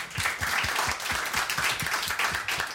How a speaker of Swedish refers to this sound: Applåd allihop.